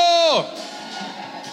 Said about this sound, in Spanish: Vamos, 30 segundos de aplauso. Amén, amén, amén, amén, amén. Alguien tiene que dar un grito de júbilo.